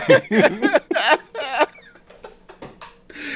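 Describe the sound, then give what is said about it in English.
A person imitates a honking goose, blurting out a rapid string of loud, nasal honks, then tapering off into softer, scattered sounds. “the horrible hunting goose.”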